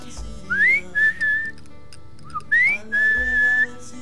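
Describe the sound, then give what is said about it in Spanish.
A person whistles a short signal call twice: a rising swoop followed by a held steady note, repeated after a pause. Clear, with no talking. “Bueno, siempre a los chicos les he hecho algún silbido, yo siempre.”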